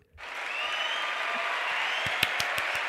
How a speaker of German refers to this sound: Ja, ähm, gibt es hier noch Applaus?